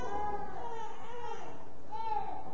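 Twin babies crying continuously during a church sermon, with high, wavering wails that rise and fall over a couple of seconds, steady in loudness throughout.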